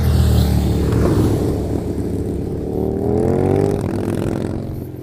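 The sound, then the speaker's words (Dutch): Several motorcycles roar past, engines loud and steady with a rising and falling whine, filling the whole stretch with no talking. “Er komt nu een eh, motor voorbij, of een aantal.”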